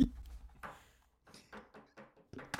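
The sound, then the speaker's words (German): A gold American Express credit card scraping across a mirror in a series of short, dry scratches and clicks, irregular in rhythm, with brief pauses between strokes. “du kannst schon mal im Hintergrund ein paar so Kreditkarten auf den Spiegelgeräusche machen”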